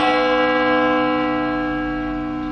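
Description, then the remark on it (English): A single bell rings out, its bright, sustained tone with rich overtones slowly fading over a couple of seconds, heard clearly and alone. “Every time a bell rings, an angel gets his wings.”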